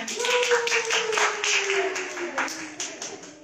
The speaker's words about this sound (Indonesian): Oke, kita mau kasih tepuk tangan dulu dong buat